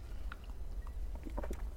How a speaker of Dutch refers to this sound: Even slokje water, want even...